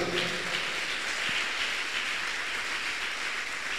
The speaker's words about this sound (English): Put your hands together for Jesus. Let's celebrate him with a clap.